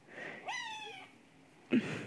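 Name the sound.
cat crying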